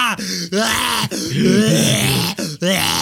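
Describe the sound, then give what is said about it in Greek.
A voice imitates heavy, labored panting after running to catch a taxi, with a run of loud, groaning breaths broken by short gaps, strained as if gasping for air after exertion. “Αυτά είναι τα πνευμόνια μου έτσι που ναι. ακούγονται.”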